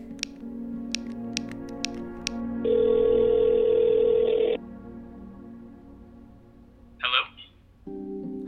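A few light taps on a phone, then a long steady electronic ringing tone over speakerphone as a number from a scavenger hunt is called, followed by a brief chirp and the tone starting again; no one speaks.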